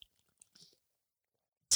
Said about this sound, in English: I'll take a sip of my liquid death mountain water. Mm-mm.